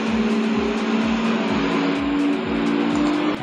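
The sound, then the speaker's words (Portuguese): A loud bus passes by outside, its engine rumbling in a steady droning hum with rhythmic low throbs filling the whole moment, with no one speaking over it. “ônibus?”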